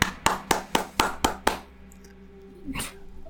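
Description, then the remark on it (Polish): A single person claps six times in a steady, even rhythm, sharp, then stops, leaving faint quiet with a soft rustle near the end. “Ktoś bije brawo.”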